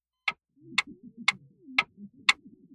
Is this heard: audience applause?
no